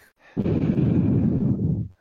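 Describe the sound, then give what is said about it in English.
A single long, heavy breath blasts straight into the microphone, a loud rumbling whoosh lasting about a second and a half before cutting off, with no talking. “Someone is breathing heavily. Is it me? That's probably me.”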